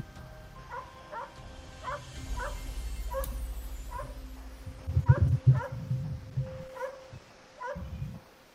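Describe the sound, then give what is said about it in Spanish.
A dog whimpers and gives short, high barks, about a dozen yelping cries spread unevenly over several seconds, with a low rumbling background and a louder burst of barking near the end. “Parece el perro, ¿no?”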